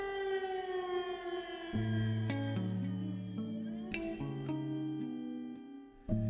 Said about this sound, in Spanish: Tengo aún activada la aplicación en el móvil que señala el comienzo y el final de la alerta y las sirenas en Libib, según las notificaciones que me van saliendo durante el día, siguen sonando varias veces aún.